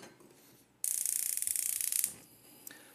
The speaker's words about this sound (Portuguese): Prontinho, e vamos agora ligar o nosso fogo